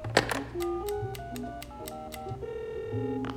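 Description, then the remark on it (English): A phone being dialed: about eight quick button clicks, each with a short beep at a shifting pitch, followed by a steady ringing tone. No one speaks. “okay, one quick call.”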